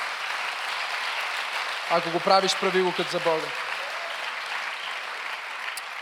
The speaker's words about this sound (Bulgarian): О, ако му ръкопляскаш, дай му слава.